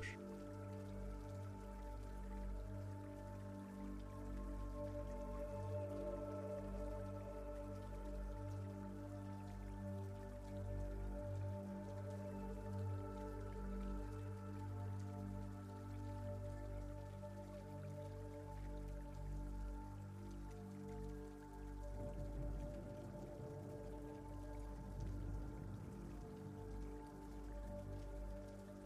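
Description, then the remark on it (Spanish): Steady rain falls continuously with scattered drips, a soft, even wash of water sound that stays at a constant level throughout, with no voices. “Y continúa disfrutando de esta lluvia y de una gran paz interior.”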